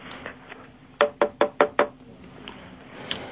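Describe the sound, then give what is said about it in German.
Five quick, evenly spaced knocks of a person knocking on their own forehead without any aids, fairly loud, hollow and dull, standing out clearly against a quiet background with a faint hiss. “Hast dir gerade an deine Stirn geklopft, gell?”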